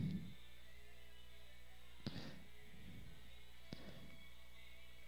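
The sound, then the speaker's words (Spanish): A vinyl record being set on a turntable: two sharp clicks about a second and a half apart over a steady low hum, with soft handling thumps and no talking. “Ok, ya puse el disco por aquí.”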